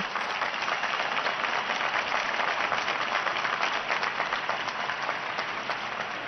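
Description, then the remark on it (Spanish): A crowd applauds steadily for Pope Benedict during an Easter greeting, the dense patter of many clapping hands holding at an even, fairly loud level throughout with no voices heard. “E un aplauso, Y un aplauso también.”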